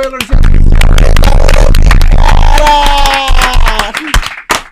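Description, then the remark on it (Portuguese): A crowd breaks into loud, sustained applause with dense overlapping claps, joined by some cheering and whooping, holding steady for several seconds before starting to thin out. “Palmas para o Elton”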